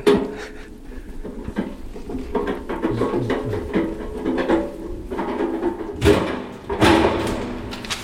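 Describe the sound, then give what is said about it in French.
A door closes automatically, not manually: a mechanical whirring and rumbling glide, then a couple of solid bumps as it shuts, with faint background noise around it. “La porte se referme automatiquement et pas manuellement.”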